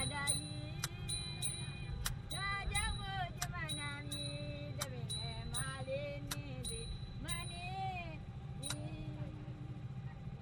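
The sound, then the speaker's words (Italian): A steady, loud low boat engine rumble drones through the whole recording as the boat crosses a river, while a woman sings a gliding melody over it. “il rumore della barca sullo sfondo e il sorriso di questa donna che non dimenticheremo mai perché ha cantato per noi e soprattutto ha festeggiato insieme a noi l'occasione di stare insieme”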